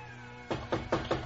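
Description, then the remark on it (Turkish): A steady series of about five knocks on a door as guests arrive, evenly spaced, beginning after a brief quiet moment with no voices present. “Ah, misafirler de geldi. Hadi sofrayı topladıysan kapıyı aç kızım.”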